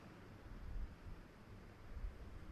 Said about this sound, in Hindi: सुनना अलग होता है श्रवण करना अलग होता है जैसे पंखे की जो आवाज़ है इसे हम सुन रहे हैं